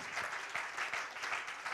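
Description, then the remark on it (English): An audience in Stockton, California claps together as a hand clap unto the Lord, in a steady, dense wash of applause, many hands overlapping into a continuous crackle that holds at an even level throughout. “Can we give a hand clap unto the Lord?”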